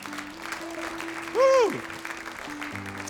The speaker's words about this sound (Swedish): Ska vi ge en riktig applåd